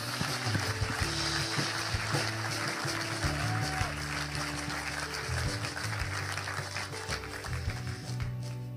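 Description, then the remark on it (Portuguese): A crowd applauds people one morning, a steady, dense, even wash of clapping for several seconds that never lets up, with low sustained musical tones playing underneath. “Podemos dar uma salva de palmas a estas pessoas nesta manhã?”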